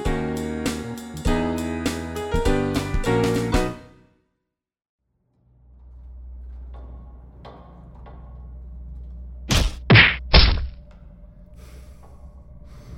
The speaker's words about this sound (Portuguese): Ele para de bater na parede, por um instante fecha os olhos e diz para si mesmo que não está sozinho.